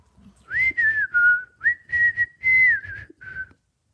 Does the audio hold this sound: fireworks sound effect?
no